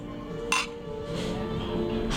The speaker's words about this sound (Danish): Og skal vi ikke starte med at skåle, min ven? Jo, meget gerne. Skål.